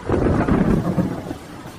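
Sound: rain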